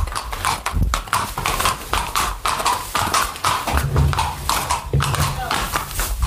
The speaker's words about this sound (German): Okay, jetzt kommt hier gleich das nächste Lot. Die Pferde sind alle schon aufgesattelt und es geht los. Das hört man jetzt auch.